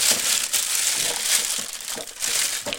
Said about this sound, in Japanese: 今これあの分別用ゴミ袋をね袋から出したとこなんですよなんだけどこれもいい音するじゃんこの袋のねガサガサ音